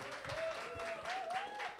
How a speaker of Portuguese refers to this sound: que a igreja receba com uma calorosa salva de palmas a Cristo.